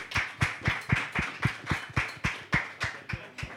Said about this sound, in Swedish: Team Aqua! 18 poäng! Bra! Stor applåd! Snyggt! Woo!